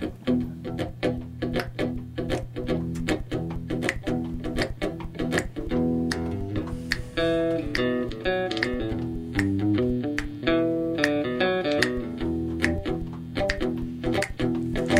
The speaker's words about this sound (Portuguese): isso é um trechinho de primavera, né? Música a que tá no álbum.